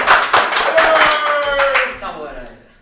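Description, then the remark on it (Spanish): A quick burst of hand clapping in applause for RK, several sharp claps in a rapid uneven rhythm, fairly loud, with a brief tonal voice sound over them before fading out. “Aplausos por RK, tú borras aplausos.”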